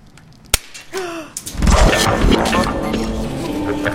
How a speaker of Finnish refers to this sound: Kaataan, miten tämä iskelmäsinkku murtuu tästä vielä.